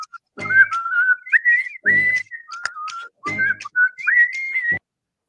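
A person whistles a short melodic tune in several phrases, the pitch gliding and stepping between notes, clear with brief breathy pauses between phrases.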